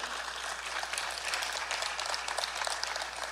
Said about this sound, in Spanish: Inmediatamente, sí puede aplaudir al Señor.